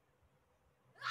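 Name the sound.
woman screaming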